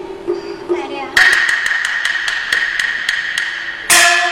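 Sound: knocking on a door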